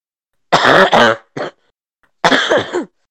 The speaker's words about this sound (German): Das Ding ist, wenn ich einmal anfange, dann äh, huste ich die ganze Zeit. Das ist schlimm.